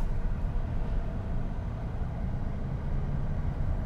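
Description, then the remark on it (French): A shredder grinding vine cuttings in freezing cold weather drones as a steady, muffled low rumble, continuous and even throughout, with no voices. “Le papa qui a travaillé en, contrebas Oui, on est en train de broyer les sardes.”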